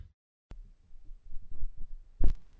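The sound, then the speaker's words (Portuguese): A heartbeat thumps at low pitch after a moment of silence, with soft repeated pulses building and a louder, sharper beat near the end. “O ritmo da vida na batida do coração.”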